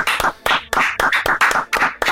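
Brisk, steady hand clapping to welcome a tenor flute player being introduced, about four sharp claps per second, fairly loud, with no voices over it.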